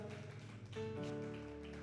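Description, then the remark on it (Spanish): An audience applauds in a steady, dense wash of clapping to welcome their pastor at a church service, with sustained musical tones ringing underneath throughout the short burst. “Y, y ah, ¿por qué no la recibimos con un aplauso, amén?”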